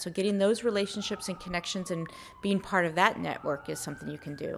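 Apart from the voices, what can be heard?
emergency vehicle siren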